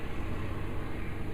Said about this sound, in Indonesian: kalau kalian dengar ini suaranya kereta apinya lagi lewat tunggu sebentar ya astaga nah ruanganku ini kan terbuka ya yang namanya jendela itu gede banget terus aku buka dua-duanya biar ada angin masuk pintu juga aku buka otomatis suara juga masuk